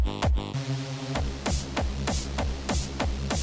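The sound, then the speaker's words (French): A distorted, gritty bass line, with distortion added to make it harder, pounds along with a punchy kick drum at the start of a track, hitting in a steady driving rhythm with bright noisy bursts on top, loud with no voices. “Rajoutons un peu de distorsion pour rendre la basse plus harde.”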